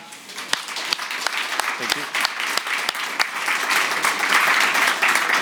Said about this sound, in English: I want to thank both you for coming and, uh, of course, both of our speakers. And uh, I would like to have a warm hand of applause for them.